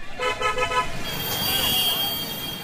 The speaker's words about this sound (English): Later, as our taxi crawls through traffic, motorcycles and three wheeled auto rickshaws weave past us. It makes Seattle's rush hour traffic look like a cakewalk. It's clogged.